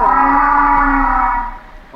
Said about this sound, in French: Ouais, on dirait un barrissement euh, d'éléphant, mais c'est, ça ressemble énormément. Ça pourrait complètement être une une vocaliste de, baleine à bosse très proche en fait de l'hydrophone. C'est excellent.